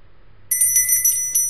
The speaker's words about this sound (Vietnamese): tiếng chuông ngoài cửa vang lên có người vào tiệm